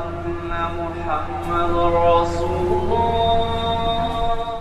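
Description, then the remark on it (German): A muezzin's call to prayer rings out in the background in the city of Akko: one long, sustained chanted voice with gently bending pitch, steady and fairly loud, carrying through the whole stretch with no one talking over it. “wir hören im Hintergrund schon den Muizin rufen.”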